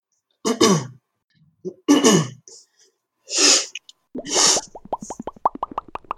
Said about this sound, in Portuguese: tá foda, porque tá esse resfriado tá me matando. Nossa, eu já dei cada pigarreada, só que eu tiro o coisa pra. O, eu tiro o coisa pra pigarrear.